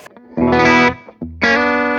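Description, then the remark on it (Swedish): Electric guitar through a Fuzz Face fuzz pedal together with a Hanneby pedal, without the Anemi: two thick, saturated chords with a buzzing, distorted sustain, played loud with a short gap between them. “Bara fast face.”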